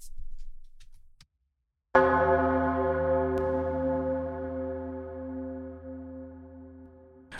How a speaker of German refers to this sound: Und ganz am Schluss dachte ich, eine Glocke wäre noch schön als Abschlag. Also wenn wir schon mit Klischees arbeiten, dann haben wir den Chor, die Orgel und Glocke.